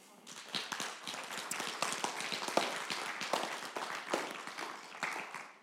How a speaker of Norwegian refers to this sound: Det er lov å gi dem en applaus, altså.